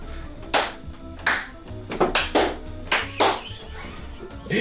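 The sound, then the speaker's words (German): A series of sharp hand claps, about eight in under five seconds, irregular, some in quick pairs, with no talking, made as sync points for a recording. “Auf jeden Fall hast du jetzt sehr viele Claps zum Synchronisieren.”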